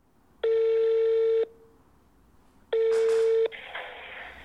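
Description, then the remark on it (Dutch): A telephone number being dialed: two steady electronic beeps, each lasting about a second with a pause between, followed by a faint hiss on the line. No one speaks. “Ik wil die mensen bellen.”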